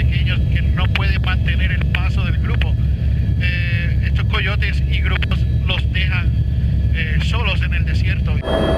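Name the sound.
helicopter flying overhead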